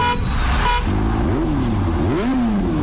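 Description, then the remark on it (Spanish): Steady roar of city traffic at midday in the Canary Islands, with engines revving and passing, and car horns honking in short tonal blasts over the continuous street noise. “Ya es mediodía en Canarias. La gente trabajando mientras la ciudad se mueve.”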